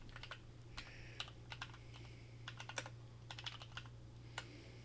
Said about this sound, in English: I'm trying to like type, and it's like auto filling out shit for me, and I'm not typing it.